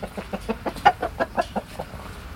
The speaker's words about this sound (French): Car des poules et des coqs vivaient en liberté au milieu des immeubles. Aujourd'hui, ils ont leur maison pour se percher ou se cacher.